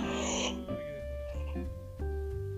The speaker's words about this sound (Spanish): Por si bostezo y cosas. Mira, no el bostezo era yo.